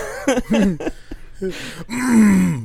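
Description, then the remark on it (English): A man lets out a series of strained, gravelly groans and grunts, ending in a long, drawn-out guttural moan, fairly loud, a voice imitating a constipated-sounding rap delivery. “Yeah, and you got to sound yeah. like you're constipated.”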